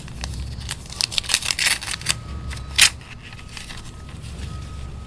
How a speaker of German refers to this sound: Also ich mache ihn auf, vermutlich. Ja. Ein, wenn er in einem Briefumschlag ist, dann würde ich den jetzt öffnen und dann okay. den Brief lesen.